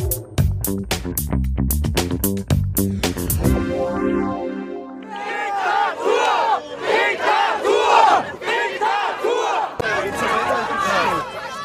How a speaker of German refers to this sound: So klang es letztes Wochenende in vielen deutschen Städten bei den Demonstrationen gegen die Corona-Maßnahmen.